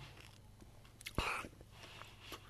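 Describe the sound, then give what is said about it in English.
A single sharp, crunchy bite of a biscuit, followed by a brief stretch of quiet chewing, swallowing and small mouth clicks over a low steady hum. “Just swallowing my biscuit.”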